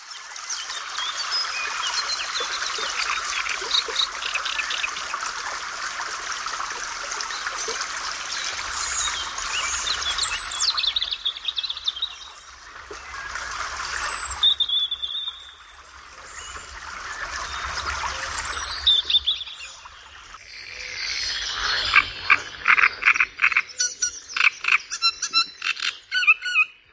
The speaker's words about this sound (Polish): No słychać, że to szuwary, zwłaszcza, że gdzieś tam tak zwane żaby się odzywają.